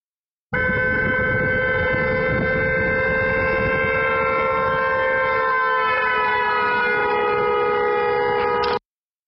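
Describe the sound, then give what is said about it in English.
A loud, sustained horn blares for about eight seconds over a low rumble, its pitch sagging slightly partway through as it passes by, then cutting off abruptly. “the sound of a train whistle or a car horn changes as it passes by you”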